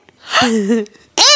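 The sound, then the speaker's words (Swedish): A person imitates a tortoise mating call with their voice: a breathy gasp into a strained, groaning tone, then a sudden loud, rising cry cut off at the end. “det enda djuret som jag vet deras sexljud är ju sköldpaddor”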